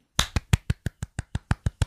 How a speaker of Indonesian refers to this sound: Selamat atas pencapaian perjalanan kekoreaan mencapai episode ke-100. Wuhu, tepuk tangan.